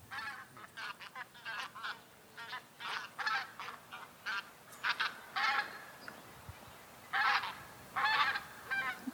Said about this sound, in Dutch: Het licht is intussen eh, verdwenen. We zien in de verte een eh, auto rijden, maar uh, horen ook heel veel ganzen.